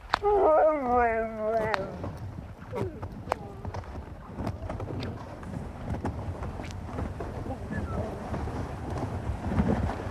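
Sled dogs pulling a couple of dog sledges bark and yelp outdoors as they come in toward a hunter's hut at nine in the evening with the sun still high, opening with a loud, drawn-out wavering yelp, then scattered sharp barks over steady wind rumble.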